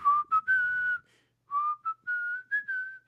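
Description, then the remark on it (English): Someone whistles a song's short melodic tune in two phrases with a brief pause between, clear, the pitch sliding gently upward with no talking. “And I got the song stuck in my head for two weeks now. Yeah, I get Me too. I was whistling.”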